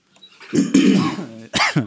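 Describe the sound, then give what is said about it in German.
Harsh, breathy coughing in overlapping bursts, as if two people cough at the same moment: a long rough stretch followed by a short pause and another loud cough. “Schön nein, gleichzeitig gehustet.”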